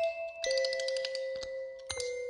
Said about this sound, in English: The music box played louder, doubling down on the lullaby.